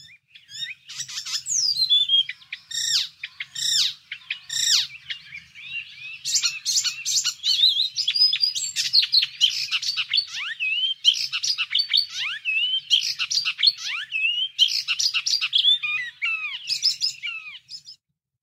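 An icterine warbler sings alone in a fast, varied stream of high chirps, whistles and harsh shrill repeated notes, fairly loud, with scarcely a pause throughout.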